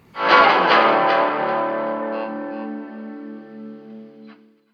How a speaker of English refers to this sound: Something, again, you try to eliminate in a pro grade studio recording, but I feel really adds to the power of that moment where the string is actually buzzing and ringing in a way that it shouldn't. It's raw, it's rock and roll.